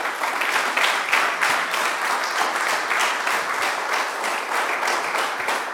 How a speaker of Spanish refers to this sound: Gloria a Dios. Gloria a Dios. Dele palmas al Señor.